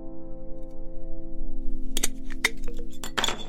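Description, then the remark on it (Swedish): A beer bottle being opened by a woman: a few sharp glassy clinks and clicks, ending in a brief bright hiss, over a steady low electrical hum. “Nastasha öppnar den och så tar hon en klunk”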